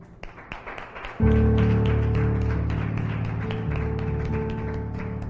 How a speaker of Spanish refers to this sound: A ver, yo creo que le dé un fuerte aplauso al Señor.